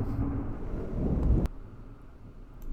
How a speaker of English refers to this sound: Keep that thunder in. the thunder's picking up on my mic. It's insane.